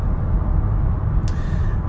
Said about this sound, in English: You probably hear, hear all the cars in the background. I'm actually on the road right now. Heading back to Tulsa.